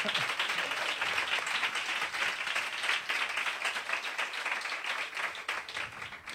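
An audience applauds the band steadily for several seconds, a dense, even wash of many hands clapping at once, fairly loud and with no voices standing out.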